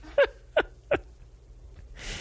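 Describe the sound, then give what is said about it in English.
Three quick, sharp gasping breaths in a row, fairly loud, then a short pause before a hissing burst of breath as a sneeze builds up and finally breaks. “For God's sake, just sneeze.”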